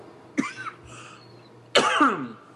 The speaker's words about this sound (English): excuse me, I'm gonna cough here.